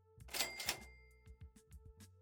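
A cash register rings with a bright mechanical clatter and a sustained bell tone, followed by a few softer clicks and thumps as it settles. No one is speaking.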